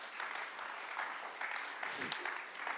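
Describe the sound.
Audience applause for a youth ministry in Norway, a steady, dense clatter of many hands clapping that holds at an even level for the whole stretch, with a brief voice surfacing partway through.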